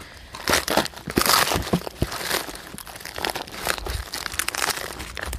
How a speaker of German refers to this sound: Und die müssen ganz fest mit diesem Stampfer, der dazu war, ähm, in den Eimer gedrückt werden, damit da kein Sauerstoff dazwischen ist.